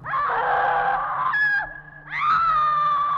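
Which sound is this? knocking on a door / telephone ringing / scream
scream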